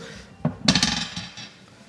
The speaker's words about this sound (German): Ich würfel jetzt erstmal